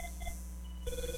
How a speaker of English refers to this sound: Oh, that was a phone call.